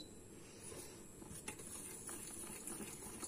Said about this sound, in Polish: Dobra, trochę się za mocno gotuje.